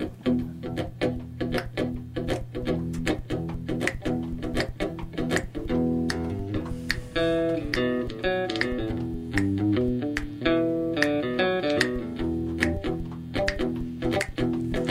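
A full-band song plays loud and close, with a steady drum beat, bass and chords from the start; about halfway in, a bright melodic lead, likely a singing voice, joins over the groove.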